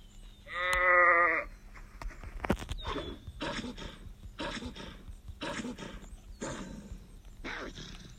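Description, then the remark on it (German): A single loud, wavering sheep bleat near the start, followed by a steady series of six or so dull, crunchy bursts repeating about once a second. “Noch ein Schaf.”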